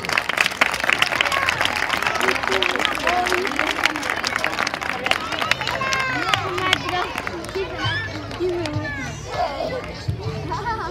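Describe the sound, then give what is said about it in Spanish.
A crowd applauds a second-grade school group at a Fridays for Future event on 15 March, with steady, dense clapping throughout, mixed with children's excited shouts and chatter that grow more noticeable as the clapping thins toward the end. “Un aplauso para el grupo de segundo.”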